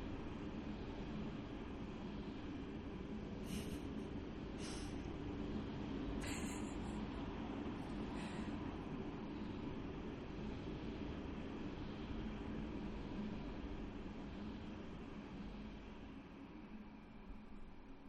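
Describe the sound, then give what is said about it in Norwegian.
A train rolls past in a steady, continuous rumble that fills the whole stretch, with a few brief high-pitched squeals or clanks early on and no voices. “Nå kommer det enda et tog.”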